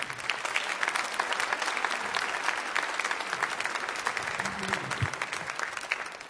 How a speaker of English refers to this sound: And so I would love for you to give a big round of applause for our speaker this morning, Mark Gungor.